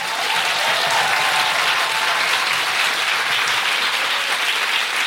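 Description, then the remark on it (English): Loud, sustained applause from a large audience at the Sam Wanamaker, a big round of applause for everyone there, a dense steady patter of many hands clapping at once for the whole stretch, with no voices rising above it. “So before I do that, can I just have a big round of applause to everyone here at the Sam Wanamaker?”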